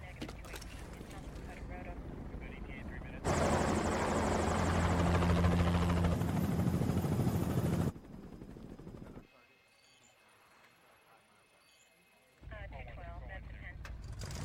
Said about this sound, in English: As they drive, Brian sees the helicopters are in position and he walkies Roman to set up the next phase of the plan.